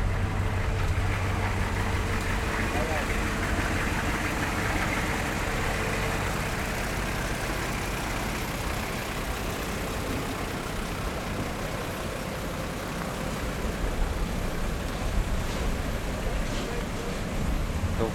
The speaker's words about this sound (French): là, on est à Côté-Tarazu. Il y plein de camions en file avec dans leur boîte des cerises de café qui s'en vont euh, débarquer au Rétibidor, le Rétibidor central.